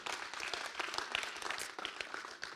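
An audience applauds a speaker one morning, a dense, steady wash of many hands clapping at once with no voices, holding at an even level throughout.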